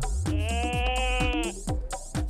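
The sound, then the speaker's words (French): A goat gives one loud, wavering bleat lasting over a second, over a steady rhythmic beat that carries on after the call ends. “Ou alors la chèvre”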